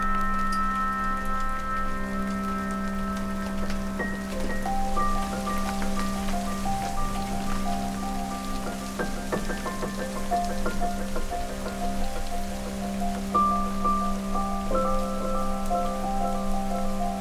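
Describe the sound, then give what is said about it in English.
Heavy raindrops fall steadily on a hard surface, a dense, continuous patter with a low steady hum underneath and no voices. “We got inside just as the first big, heavy drops started coming down around us.”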